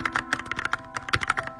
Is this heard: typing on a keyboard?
yes